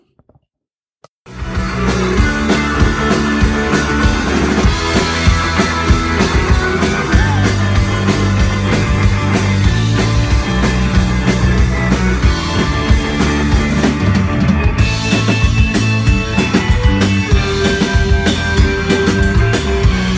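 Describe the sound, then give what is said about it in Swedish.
After a second of silence, a band with vocals, bass, guitar and drums kicks in and plays steadily to the end, with driving drums under dense guitars and sustained melodic lines filling out a full rock-style mix; a short clip from one of their songs. “Ni får höra lite eh, korta klipps från några av låtarna eh, här och senare.”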